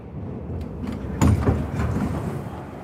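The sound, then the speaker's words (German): A steady low rumble of a subway train fills the Eberhardshof underground U-Bahn station in Nuremberg, Germany, with a brief louder clatter of machinery partway through and no voices. “U-Bahn-Haltestelle Eberhardshof.”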